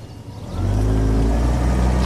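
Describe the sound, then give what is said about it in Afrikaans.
A car engine suddenly roars up from a low idle and holds a strong, steady rev as the vehicle pulls away, loud, with no voices. “Ry net asseblief”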